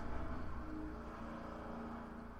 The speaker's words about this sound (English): Sounds like people are drilling or something. I don't know.